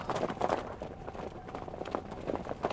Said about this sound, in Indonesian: Saat itu, kata ibu, Beliau mendengar ada suara kuda meringkik dengan derap langkahnya yang berlari mondar-mandir di jalan setapak itu.